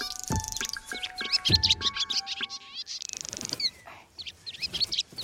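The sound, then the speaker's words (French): Swallows, Lily and the swallow friends she calls to help carry a rope across the road, twitter in rapid, overlapping chirps that run steadily for several seconds, fairly loud, with a couple of soft low thumps near the start and no voices. “Super idée, Lily Elle va appeler ses copines hirondelles pour l'aider.”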